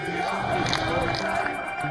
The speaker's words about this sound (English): crowd is chanting God, Syria, and freedom.